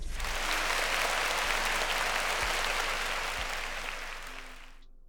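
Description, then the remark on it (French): A steady burst of applause from a group, congratulating a Cameroonian player who finished fifth in a tournament in London; dense and continuous clapping at an even loudness for about four seconds before tapering off and stopping abruptly. “Donc, applaudissements.”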